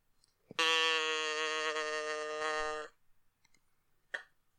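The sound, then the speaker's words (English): A person imitates a cow, letting out one long, loud, steady moo for a little over two seconds. A few faint clicks follow. “Uh, yeah, moo us in”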